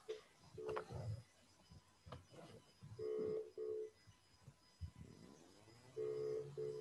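A phone call ringing out to a participant being added to a group call: steady mid-pitched ringback tones repeat in short bursts, some in pairs, with soft clicks and faint murmuring voices between them.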